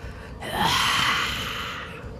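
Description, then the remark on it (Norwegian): A deep, dramatic inhale drawn in sharply and held for over a second, fairly loud, with no talking around it; breath drawn in before blasting it out as a 60-foot cone of cold. “starta med å trekke inn pusten og Eh, kommer til å bruke bare pusten sin til å”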